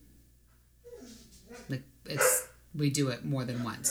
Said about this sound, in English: So that was our dog barking, by the way. You probably Sorry. heard it in the background.